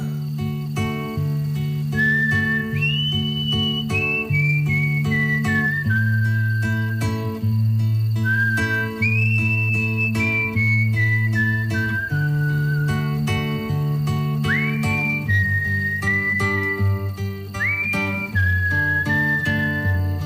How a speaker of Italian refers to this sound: Quando il principe vede il volto di Pamina, immediatamente si innamora e quando il principe si innamora, perde la parola e fischia.